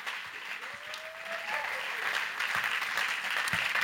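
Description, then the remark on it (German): Steady audience applause welcoming guests onto a stage, a dense patter of many hands clapping that fills the whole stretch and swells slightly louder toward the end, with no voices standing out. “Und darum geben wir Ihnen einen riesen Applaus, dass Sie Gasters ganz herzlich auf der Bühne,”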